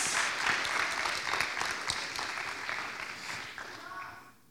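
An audience applauds steadily, welcoming two invited girls to the front. A dense rattle of many hands clapping at a constant level for several seconds, then thinning out and fading near the end.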